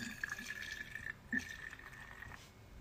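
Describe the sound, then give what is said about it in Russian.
A steady stream of freshly brewed tea pours into a vessel, a continuous liquid trickle with a ringing tone and a brief splashy burst partway through. No one speaks. “Вот слушайте, как, как он наливается.”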